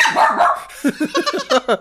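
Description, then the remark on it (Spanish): A dog lets out a drawn-out whiny vocalization, then a rapid run of about six short, sharp barks, loud, with no one talking over it. “Yo sé que tú quieres hablar, pero coño, qué bolas, que dirían los perros si hablaron?”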